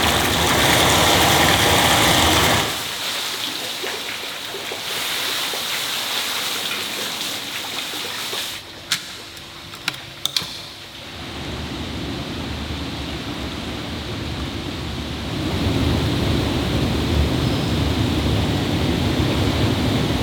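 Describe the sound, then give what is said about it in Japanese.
Steady rushing water fills a sento, a Japanese public bathhouse in a shitamachi old downtown district, briefly dipping quieter mid-way, with a few sharp clacks like plastic basins knocking against tile before the heavy flow swells back up. “目覚めのいいね今朝は下町にある銭湯のいい音それではお聴きください”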